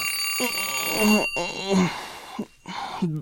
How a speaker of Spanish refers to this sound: Su despertador suena a las 8 a.m.